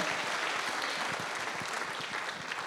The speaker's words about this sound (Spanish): Dele palmas al Señor y de gracias por los anfitriones.